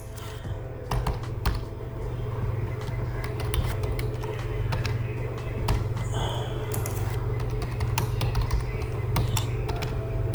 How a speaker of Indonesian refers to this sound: tadi lo gua ngetik dulu nih sambil ngisi ini